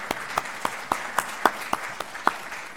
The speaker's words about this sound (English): But we need to we need to clap.